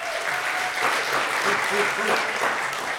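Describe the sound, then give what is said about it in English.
A crowd applauds steadily for a man who has been leading a project, a dense wash of clapping that holds an even level throughout, with a few faint voices and cheers woven into the noise. “So give him a round of applause as well.”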